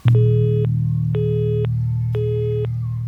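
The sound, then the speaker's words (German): A telephone tone beeps three times in an even on-off rhythm, each buzzy beep lasting about half a second, over a steady low electrical hum like a faulty phone line, heard on a phone that seems broken while trying to call friends. “Ich versuchte Freunde anzurufen, aber mein Telefon schien kaputt zu sein.”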